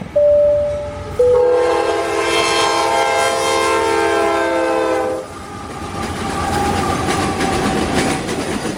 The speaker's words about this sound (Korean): 아, 저는 지금 자동차를 타고 미국을 여행 중인데요. 지금도 건문 건널목 앞에 기차가 지금 지나가길 기다리고 있습니다. 기다리고. 미국 스케일답게 기차도 뭐 상상을 초월할 만큼 엄청 깁니다. 끝이 보이질 않습니다. 석탄도 실려있고 컨테이너, 왁스에 뭐 소들도 심지어 있습니다. 말도 있습니다.